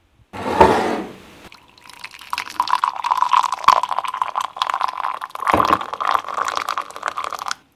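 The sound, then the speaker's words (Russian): Boiling water for tea pours from a samovar tap into a cup: a brief splash, then a steady trickling stream for several seconds before it stops. No one speaks. “А сейчас я, мой чай заварился, настоялся, я наливаю из своего самовара, сейчас я налью чай.”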